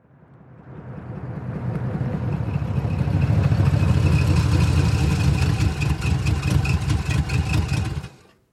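A heavy truck loaded with timber pulls up in front of a rice cake shop, its engine rumbling and building to a steady low idle with a rhythmic throb, then cutting off abruptly near the end. No one speaks.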